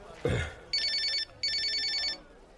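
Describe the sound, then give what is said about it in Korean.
A telephone rings twice, each ring a long, shrill, high-pitched electronic trill separated by a short pause. A brief voice or breath sound comes just before the first ring. “아이 그래도 전화나 받아.”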